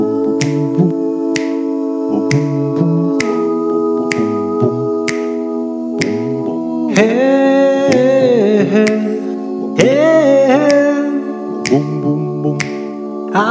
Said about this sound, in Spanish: Yo lo que he hecho ha sido un acercamiento con voces a capela a este tema. Lo vamos a escuchar a continuación y después hacemos a lo mejor algún apunte más.